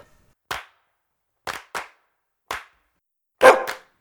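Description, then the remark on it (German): A dog sitting in front of a stove where pork is cooking gives a series of short, sharp, loud barks against silence. There are about six in all, spaced irregularly, with a quick double bark near the end. “Mein Hund, der vor dem Herz sitzt und bellt, macht er sonst nie.”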